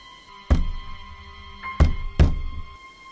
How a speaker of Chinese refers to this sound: 沉闷的敲击声将秦浪拉回到现实之中，声音从第二具红色的棺材内发出，两具红色的棺材同时下葬，冥婚。